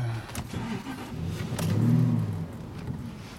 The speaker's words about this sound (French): laisser chauffer la bécane. Moteur V8, c'est un vieux Spitfire.